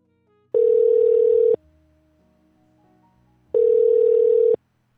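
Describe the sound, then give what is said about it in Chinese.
A telephone tone while placing a call to invite a friend to share a thought: two steady, loud, mid-pitched beeps, each lasting about a second, separated by a two-second pause, with no voices. “呃，接下来呢，我也要去打几通电话，邀请一些朋友来跟我们分享这段时间他感触最深的一句话。”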